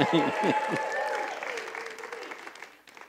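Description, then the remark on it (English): An audience breaks into applause and cheering after reciting the declaration "Jesus Christ has made me free", with whoops and raised voices over steady clapping at the start that gradually thin out and fade over a few seconds. “Yeah, we could all cheer right there.”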